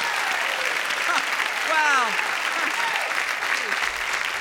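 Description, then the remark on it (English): Steady audience applause fills the whole stretch, a dense patter of clapping at moderate volume, with a man's voice briefly speaking over it partway through. “Gee, it sounds like five or six of them are here.”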